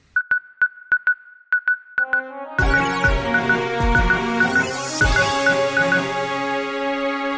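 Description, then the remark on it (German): A news jingle opens with a rhythmic run of short, bright electronic beeps, then swells into a full, loud musical arrangement while the beeping pattern continues on top. “Wie wärst du, wenn jetzt dieses, dieser, dieser Piep-Sound kommt?”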